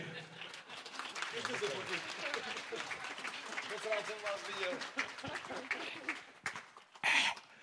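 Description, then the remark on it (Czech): Audience applause for the team from the company Bionaut and their successful projects: a dense steady patter of many hands clapping for several seconds, with voices and cheering mixed in and a louder burst near the end. “Dobře, dámy a pánové, v každém případě potlesk pro uh, audionauty ze společnosti Bionaut, aspoň to jsem nezvoral, a jejich úspěšné projekty.”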